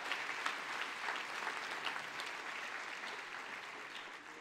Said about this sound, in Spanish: Dale fuerte ese aplauso al que vive, por favor.